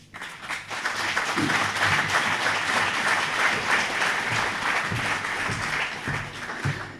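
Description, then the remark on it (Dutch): Sustained audience applause, the first of the event, for a guest invited onto the podium: a dense wash of many hands clapping steadily for about seven seconds at an even, fairly loud level, with faint voices or cheers now and then underneath. “Ja, het eerste applaus komt jou ten deel.”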